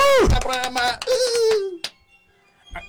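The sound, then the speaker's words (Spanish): A person imitates a seal's bark: loud, wavering vocal cries with sliding, falling pitch for about two seconds, then near silence broken by a brief faint sound. “¿Por qué le haces como foca?”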